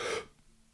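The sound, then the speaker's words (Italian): A single sharp, deep breath drawn in for a moment, taken to wake up, then it stops and the air is held in near silence. No one speaks. “anzi se non riuscite a sedervi fate un bel respiro profondo, un bel respiro e poi tenete, se, se siete stanchissimi tenete anche un po'”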